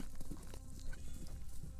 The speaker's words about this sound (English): The next morning, Lou rides west as fast as his horse can carry him.